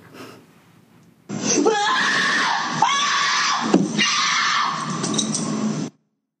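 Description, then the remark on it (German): A person screams loudly and continuously for about five seconds, a harsh, strained cry with shifting pitch and breaks, rising out of near silence and cutting off abruptly. “Ich habe beim ersten Mal so gelacht, weil ich gedacht habe, ja klar, geschrien.”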